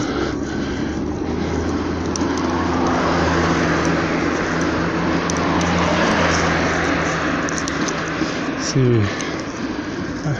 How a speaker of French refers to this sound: Mais j'ai l'impression qu'il y a plus de voitures qu'il y a quelques mois par ici, ou alors c'est parce que je suis en retard je ne sais pas trop.